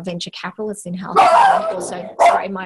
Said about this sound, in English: my dog in the office